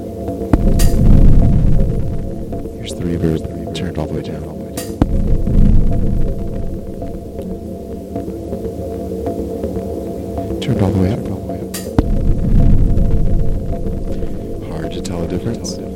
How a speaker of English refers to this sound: goes into a reverb, which is a spin semiconductor FV1.